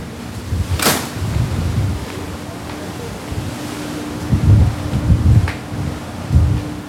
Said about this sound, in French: La grande porte à la poupe qui se referme, cadenassant nos libertés vis-à-vis de la terre ferme pour quelques heures.